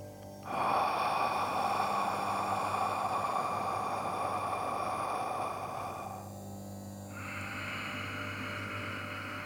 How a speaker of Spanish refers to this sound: una inhalación por la nariz y una exhalación por la boca generando así un ciclo en el que vamos a respirar durante tres minutos. El pranayama se realizaría así.